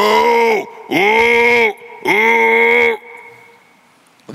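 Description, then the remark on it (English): A person imitates a lion's roar three times in a row, each a loud, drawn-out bellow that drops in pitch at the end, followed by a brief quiet tail; the imitation is of hungry lions roaring at meal time. “and you can hear those lions roaring.”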